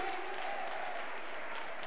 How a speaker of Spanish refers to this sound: Vamos a palmas de alabanza para el Señor, amén. ¿Cuántos dan palmas de alabanza para el Señor, amén?